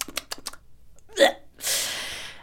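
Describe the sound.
A voice imitates loud, wet kissing: a quick run of sharp lip smacks, then a short voiced squeak and a long breathy hiss, with no speech.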